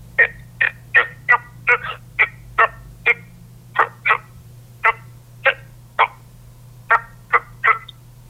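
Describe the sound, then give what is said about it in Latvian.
A common toad, widespread throughout Latvia, calls alone in a quick run of short, rasping croaks, about twenty in all, spaced irregularly, over a steady low hum. “iepelēkai, sausu, grumbuļainu ādu bez svītrām un plankumiem, tad tas ir parastais krupis. Dziesma Nu, diezgan man pagrūtīja.”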